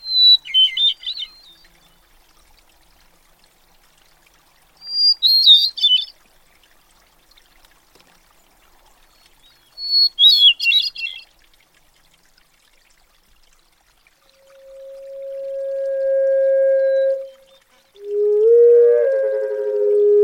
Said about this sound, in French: vient d'entendre le, chant d'un oiseau et euh, donc il s'agit d'une grive euh, que j'ai enregistrée euh, au sud de l'Alaska, sur, sur l'île de Kodiak, il y a quelques années.